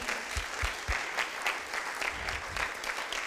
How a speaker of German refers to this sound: Jetzt ein Applaus wirklich für die vier.